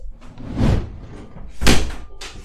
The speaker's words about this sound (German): Die Tür geht zu, weil ich wollte.